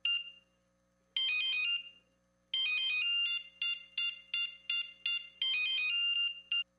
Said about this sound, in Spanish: Si pensaste que sonaba tu celular, es momento de cambiarte a un smartphone.